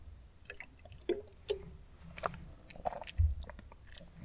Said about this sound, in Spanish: Antes de empezar a hablar de, con este episodio final, voy a darle un trago a mi agua.